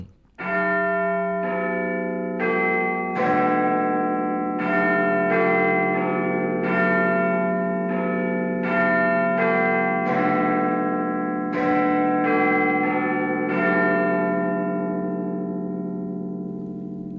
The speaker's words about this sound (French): ce motif pour euh, montrer que les Anglais ont tendance à ne pas vouloir trop l'assumer comme un code, même si c'est devenu le top horaire de, la BBC